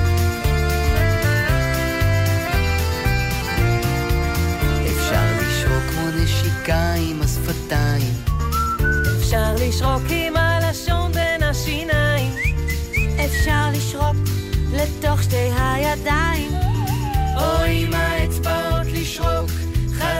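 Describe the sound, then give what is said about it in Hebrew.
A person whistles a wavering, lilting tune over steady instrumental backing with a pulsing low bass, the whistled melody rising and falling throughout at an even, moderate loudness. “זה סתם ללכת, סתם ללכת ולשרוק.”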